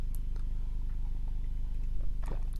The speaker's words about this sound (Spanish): Vamos a hablar de cómo nos la tomamos, pero primero, sorbito el café tuco.